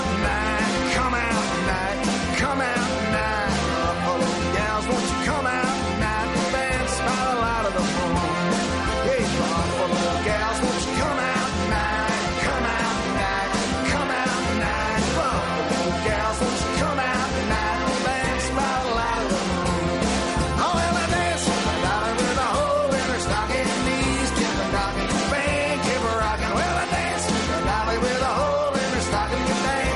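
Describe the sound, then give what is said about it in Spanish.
A lively, upbeat folk song played by a full band, bright and driving with a steady bouncing rhythm, loud and continuous throughout. “qué delicia, esa alegría de vivir, ese mensaje que tiene esta canción.”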